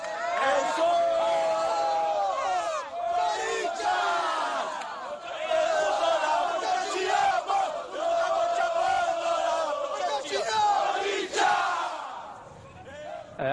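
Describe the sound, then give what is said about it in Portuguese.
Corinthians football supporters at a match against Fluminense in Brazil chant loudly and continuously in unison, a dense wall of many voices with rising swells and shouts, filling the stadium for the whole stretch. “É, é a segunda maior torcida do Brasil, isso é, é indiscutível. Agora, é, ela comparece.”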